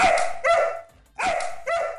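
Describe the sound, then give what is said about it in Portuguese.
A dog barks four times in two quick pairs, each bark sharp, with a brief pause between the pairs and no talking. “quem comanda os nossos perfis oficiais é o Titi, o nosso cão podcaster maravilhoso. Dá um outro salve, Titi!”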